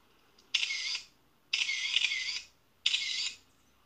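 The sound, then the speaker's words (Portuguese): Three camera shutter clicks, each a sharp snap followed by a brief bright mechanical whir, separated by short pauses. Crisp and high-pitched, with no talking. “Se você disse fotografia, então você acertou.”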